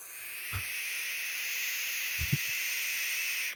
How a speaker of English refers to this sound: Number six, barn owl. Do you know what that sounds like? Imagine being in the woods where there's no electricity